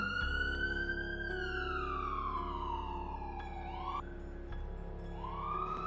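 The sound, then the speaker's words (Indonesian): An ambulance siren wails loudly on the streets, its pitch sliding slowly down and then rising again, with a steady low rumble of traffic underneath. “Ambulan berseliweran di jalan-jalan.”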